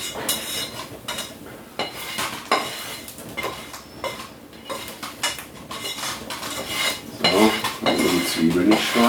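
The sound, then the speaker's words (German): Food is scraped and tipped into a taller frying pan, with a run of metal clinks and clatters from utensils and cookware, growing busier and louder toward the end. “Ich fülle das jetzt alles in die höhere Pfanne um und mache jetzt noch die letzte Ladung Champignons.”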